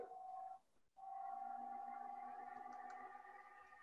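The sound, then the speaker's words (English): A steady electronic feedback tone, the echo of a speaker's own voice, hums loudly with a ringing, echoey quality, cutting out briefly near the start before resuming and holding steady. No one speaks. “I, I, I hear you. I hear me. I hear me echo.”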